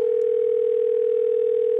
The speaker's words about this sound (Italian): Seconda telefonata all'elettricista